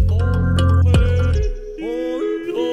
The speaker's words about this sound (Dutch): Nou, je hoort het. We zitten even op een Alpenweide. Ja, ja, met die typische bruine Zwitserse koeien